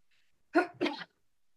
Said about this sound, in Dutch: En ik moest even niezen, want ik ben best wel verkouden. Misschien dat je dat al gehoord.